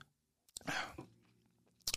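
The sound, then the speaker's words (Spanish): A wet slurp as someone sips a Chevesuki porter beer, followed by a quiet throaty swallow and another short mouth noise at the end, with no talking. “Pues vamos a darle un trago porque ya me ya.”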